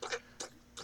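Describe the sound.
Three short, soft squishy squelches in an even rhythm, each a quick wet burst from a finger poking a chest, separated by brief quiet gaps with no talking.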